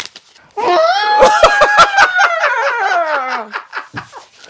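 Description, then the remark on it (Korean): A person imitates an elephant's trumpet by blowing through a rolled-up A4 sheet of script paper: one loud, brassy, buzzing blare lasting about three seconds, crackling and rasping as its pitch slowly slides downward. “자, 지금 저기 A4 용지를 말아, 대본을 말아서 해주셨는데요.”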